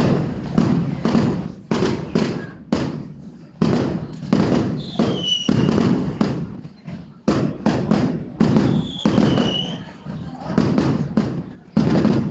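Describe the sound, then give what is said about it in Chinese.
Strings of firecrackers set off in Hubei explode in loud, rapid, crackling bursts, separated by brief pauses. A couple of thin, high whistling tones rise above the popping partway through. “然后我听到的就是在湖北放鞭炮的声音。”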